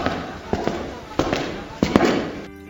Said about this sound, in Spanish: 12 de la mañana en algún ministerio de algún país. Un pasillo largo, largo de esto de los ministerios y alguien caminando sobre el pasillo. Se oyen pasos.